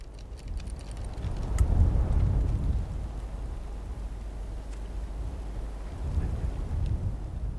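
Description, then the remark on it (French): Rain hisses steadily throughout while deep, rolling thunder swells twice, once early on and again near the end, in an afternoon thunderstorm with snow at a mountain base camp, with no voices. “Les après-midi, il neigeait, il y avait de l'orage, il faisait mauvais euh, la moitié de la journée.”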